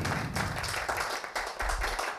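An audience applauds an author after his answer at a talk about his work, a steady wash of dense, overlapping claps that hold a fairly even loudness for about two seconds, with no voices over it.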